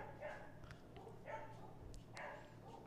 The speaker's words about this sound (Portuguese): Esse cachorro faz parte do podcast?